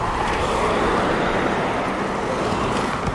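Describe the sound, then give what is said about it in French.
Steady roar of car traffic on a road near Orléans, France, with no cycle lanes or road markings, heard while cycling among the cars; a continuous rumble of engines and tyres with no pauses or distinct passes, and no one speaking. “Alors, on est d'Orléans, plus de pistes cyclables on roule avec les voitures sans démarcation au sol.”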